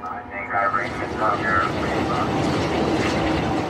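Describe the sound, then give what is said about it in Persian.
An escort helicopter roars steadily overhead near the mouth of the Strait of Hormuz, flying over a boat the pilots identified as Iranian to force it away. Its dense engine and rotor noise is loud and continuous throughout, with indistinct voices faintly mixed beneath the drone. “هلیکوپتر محافظ با پرواز بر روی این قایق آن را مجبور می کند که دور شود قایقی که به تشخیص خلبانان هلیکوپتر متعلق به ایران”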